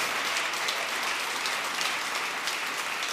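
An audience claps their hands together for the Lord in steady, dense applause, many overlapping claps blending into a continuous crackling wash at an even loudness with no voices heard.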